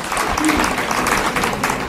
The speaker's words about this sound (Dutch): En applaus voor het megabedrag.